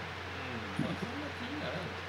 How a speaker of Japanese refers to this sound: すいません雨の音入ってますけどこれ雨の音なんで 雨の音入ってますけどすいません雨の音なんです 日本語めちゃくちゃ下手やったけどその多分雑音みたいな感じで入ってるんかな